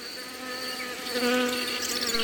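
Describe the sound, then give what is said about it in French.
A steady, dense buzzing of many honeybees around hives at an apiary, continuous, with the drone swelling slightly louder midway. No one speaks. “ici j'ai toujours quelques ruches, hein. on peut s'approcher un petit peu si vous voulez.”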